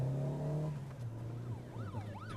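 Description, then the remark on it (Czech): Police cars go by: a steady engine rumble is joined by rising and falling siren wails that grow more prominent toward the end. No one speaks. “To mají zase policajti nějakou rally, co?”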